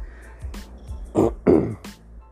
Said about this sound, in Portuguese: E se eu tossi durante a gravação, tudo bem, né? Relevem. É a doença.